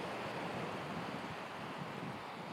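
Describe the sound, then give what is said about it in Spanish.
A steady, broad wash of surf rolls in from the sea onto a beach, heard from a bench on the seafront promenade: a continuous rushing hiss of waves on the shore with a faint windy edge and no voices. “De fondo, creo que escucháis el mar, ¿no? Estoy en la playa.”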